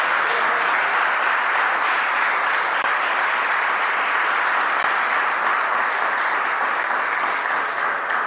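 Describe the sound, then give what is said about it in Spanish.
An audience applauds together as an offering of applause to the King of Glory during a Spanish-language sermon, a steady, dense wash of many hands clapping that holds at full strength for several seconds without voices breaking through. “¿Cuánto pueden darle una ofrenda de palmas, Rey de Gloria?”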